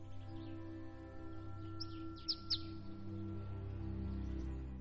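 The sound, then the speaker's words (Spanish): A bird sings a few short, bright chirps in quick succession, fairly faint and set against a steady low humming drone that continues throughout, with no voices present. “Al percibir el canto del pájaro, Alma esboza una serena sonrisa.”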